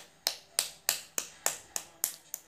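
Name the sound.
clapping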